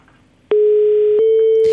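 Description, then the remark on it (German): A steady, loud telephone ringback tone on an outgoing call to a reporter's mobile phone starts abruptly after a half-second of quiet and holds one continuous pitch to the end, with a couple of faint line clicks and no voices. “Und wir äh, rufen ihn jetzt einfach mal auf seinem Reportagemobil an, fragen, wo er ist und was wir als erstes zu erwarten haben.”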